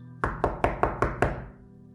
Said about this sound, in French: Cela signifiait que c'était une maison juive. Il toqua vivement à la porte.